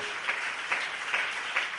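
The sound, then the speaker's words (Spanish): Steady applause from a church audience during a sermon, a dense wash of many hands clapping together with a few louder rhythmic swells roughly every half second, no voices heard. “Ahora sí ve que el aplauso suena más bonito.”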